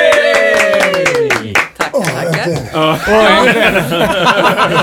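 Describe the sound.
A brief burst of light, spontaneous applause for two guests of the show, quick sharp claps in the first couple of seconds, mixed with whooping, chuckling and excited voices that carry on after the clapping fades.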